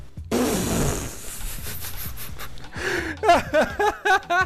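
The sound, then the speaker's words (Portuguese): Someone chokes and gasps after swallowing a beard hair: a sharp strained intake followed by rough coughing sputters and a series of short, harsh throat-clearing bursts, fairly loud with no talking. “não, foi um pedaço, foi um fio de barba, cara. Me engasguei aqui.”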